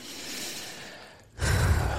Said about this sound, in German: Und wenn man akut tagsüber in Stresssituationen kommt, dann ist es wichtig, dass man für sich selbst kurze Momente der Erholung sich nimmt. Das kann schon mal sein, einfach nur tief durchzuatmen.